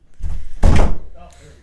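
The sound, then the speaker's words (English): A loose door that doesn't latch bangs shut once with a heavy thud, preceded by low rattling and trailing off into faint background voices. “door doesn't latch. That's the problem. That's how the dog keeps getting in.”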